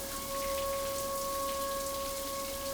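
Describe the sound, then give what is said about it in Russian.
Water drops patter steadily from a running shower in the early morning, around 7 a.m., a continuous dense spray of droplets with a faint steady tone humming beneath it throughout. “Пошла в душ и вдруг сквозь грохот падающих капель я услышала еще непривычный визг сирен.”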